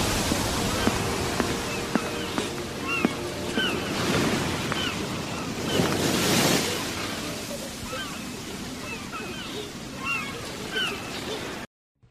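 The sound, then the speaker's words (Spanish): Caribbean Sea waves breaking on the hot beaches in front of the Centro Cultural y de Capacitación de Cajamá, a steady hiss of surf, one wave surging louder midway, with small birds chirping repeatedly over the wash before it cuts off. “Bienvenidos a la sala virtual del programa Oídos para Ver en el Centro Cultural y de Capacitación de Cajamá, frente a las ardientes playas del Mar Caribe.”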